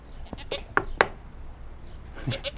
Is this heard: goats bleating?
yes